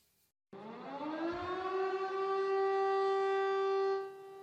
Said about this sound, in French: Sur cette place d'Arras, les sirènes de la ville retentissent à la mémoire de Dominique Bernard.